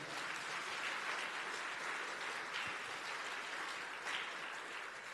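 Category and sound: crowd, audience applause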